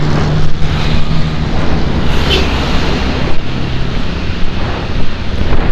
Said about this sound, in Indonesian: serem banget Trans Jogja di jalur lambat mepet banget sama motor dengan kecepatan yang ya nggak lazim sih di jalur cepat eh di jalur lambat dengan kecepatan segitu Trans Jogja lagi bis mepet sama motor